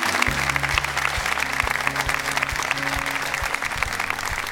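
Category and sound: crowd, studio applause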